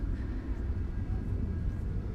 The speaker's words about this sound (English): although you may hear the aeroplanes